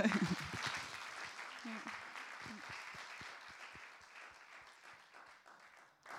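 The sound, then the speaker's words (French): An audience applauds, a dense patter of many hands that starts loud and gradually thins out, with a few voices briefly audible underneath near the start. “Euh, on t'applaudit un peu.”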